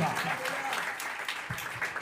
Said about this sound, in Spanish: Entonces lo que Dios se merece es una buena adoración. Dele palmas a Dios en esta tarde es una buena alabanza.